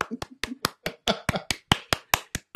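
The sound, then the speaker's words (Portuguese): Hand clapping: about a dozen sharp, crisp claps in a steady, quick rhythm of roughly four or five per second, with faint vocal sounds between the first few claps. “Palmas pro”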